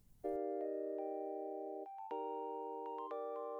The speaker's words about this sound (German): Das ist unsere Titelmelodie. Ach, die, ja. Ja, gut. Also, warte mal, pass auf. Die kommt jetzt nochmal für unsere Zuhörer. Okay. Und zwar jetzt.